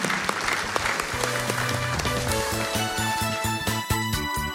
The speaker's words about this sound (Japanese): どうぞ皆様大きな拍手でお送りください